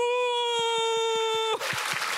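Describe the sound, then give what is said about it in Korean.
An audience claps in a steady rhythm, applauding Jesus as their big brother at the preacher's call, beneath a sustained, bright held tone. The tone then cuts off and the clapping becomes a dense, loud wash of applause. “자 그러니까 우리 예수 큰 형님께 박수”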